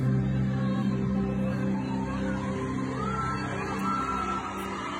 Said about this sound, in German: Und du hörst den Jubel im Hintergrund, wie die Menschen ihre Hoffnung auf Gott im Himmel setzen.